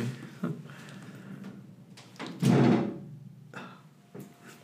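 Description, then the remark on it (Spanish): A door is pushed shut with one solid thud midway through, surrounded by a few softer clunks and handling noises against a low background hum. “Güey, cierra eh, esa puta puerta porque siento que algo me está viendo la verga, güey.”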